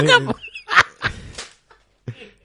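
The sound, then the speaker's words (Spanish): A person imitates a chicken with a few short, choppy clucking bursts, fairly loud, separated by brief pauses. “gallinas.”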